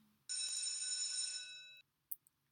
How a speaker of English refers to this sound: I think I have heard, just heard the morning tea bell ring, which means that this little chat between two sipping teachers needs to come to an end for today.